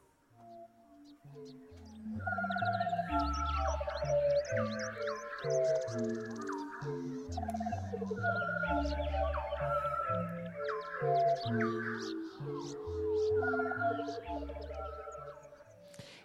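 A music track weaves a marsh warbler's rapid, chattering song, pitched and layered, over steady deep bass notes and bright synth tones, loud and continuous throughout with no talking.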